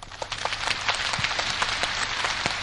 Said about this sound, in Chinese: 听明白的，掌声告诉我。